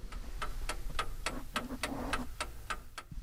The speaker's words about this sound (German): Hier steht wunderbarer Regulator, der auch tickt. Wir hören es mal ganz kurz.